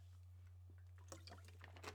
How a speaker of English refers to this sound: Hold on. Let me take a chug of water.